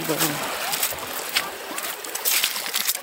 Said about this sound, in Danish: lige en lille smule bølge, der krabber lidt i kanten her. Men vandet er helt rent.